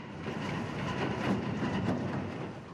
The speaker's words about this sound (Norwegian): En kø med lastebiler humper av gårde på ringveien som er under bygging. Veien ligger helt på grensen til nasjonalparken.